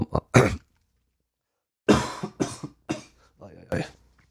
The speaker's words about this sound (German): So, jetzt probier's nochmal. Jetzt habe ich so viel gehustet.